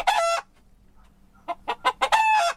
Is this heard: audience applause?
no